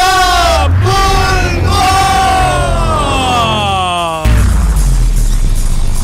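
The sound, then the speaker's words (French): A loud crowd, the people of Beauport and the Côte de Beaupré in Quebec, cheers and shouts continuously during a bingo game, with voices yelling and whooping over a dense roar of noise that grows rougher and more chaotic toward the end. “Les gens de Chasse aussi, je veux vous entendre les gens de Beauport, la côte de Beaupré. je veux qu'ils vous entendent jusqu'à Trois-Rivières, OK?”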